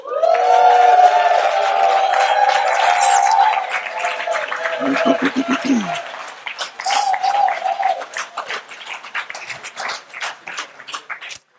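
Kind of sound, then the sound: crowd, audience cheering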